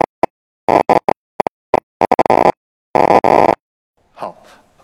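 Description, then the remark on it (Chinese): Sharp, loud clicks of a monkey's neuron spikes, recorded while the monkey performed a choice task and converted to sound, arriving irregularly: scattered single pops at first, then dense rapid crackling bursts, followed by a faint softer sound at the end. “那个刚才放这个小电影的时候，大家也听到了这个哒哒哒哒的声音，对吧？这个哒哒的哒的声音，它就是这个脉冲的声音。”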